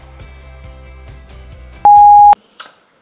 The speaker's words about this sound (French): Après le bip, c'est à vous.